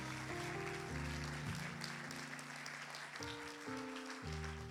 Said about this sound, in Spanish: ¿Cuántos lo creen? Dale un aplauso fuerte a Jesús. If you believe it, give the Lord a hand clap.